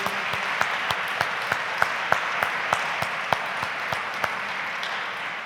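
An audience applauds the staff of the Diakonisches Werk Unifair, who are providing food and coffee, a dense wash of many hands clapping with a few sharper individual claps standing out at irregular moments. No one speaks over it.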